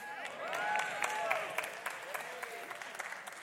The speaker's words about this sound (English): It's nice to hear you clapping and the energy.